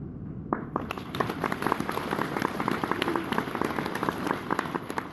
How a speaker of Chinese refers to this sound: 好了，刚刚鼓掌的就算你们大公无私了。